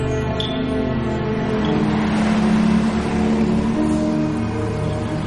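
A white bus drives in daytime under intense sun along a lightly travelled road that crosses arid countryside, its engine a steady, low rumbling drone with a faint hum that swells slightly midway and keeps going throughout, with no voices.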